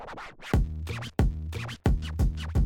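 A voice imitates a truck engine: loud, low rumbling bursts that rise and fall in a steady rhythm, about four pulses in quick succession with no other talking.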